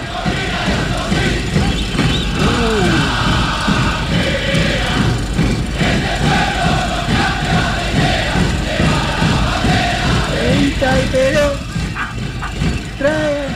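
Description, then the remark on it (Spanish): A large crowd at a CGT protest march during a strike in the 1980s chants and shouts together, a loud, dense wall of overlapping voices that carries steadily for the whole stretch, with occasional higher cries rising above the mass. “Una marcha de la CGT Baldini.”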